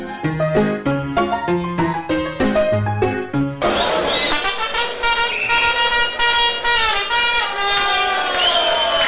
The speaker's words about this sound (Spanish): Qué increíble que un sonido, una puta trompeta pueda ser tan representativa de un único club en el mundo.